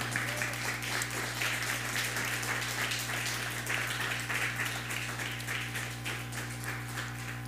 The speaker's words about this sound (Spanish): Dale un fuerte aplauso.